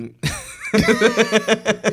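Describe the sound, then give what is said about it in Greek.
Someone clears their throat: a harsh opening rasp, then a quick run of rhythmic, voiced hacking pulses, fairly loud and with no speech. “Εντάξει, ξέρω, ήταν δύσκολη διαδικασία το καθαρίζω το λαιμό μου.”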